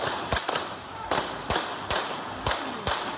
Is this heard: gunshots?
yes